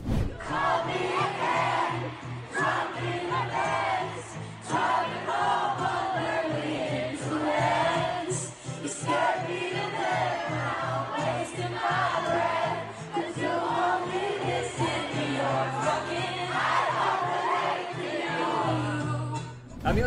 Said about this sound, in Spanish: cantó cinco canciones acústicas para los fans para que no se fueran decepcionados, así que vamos a escucharla.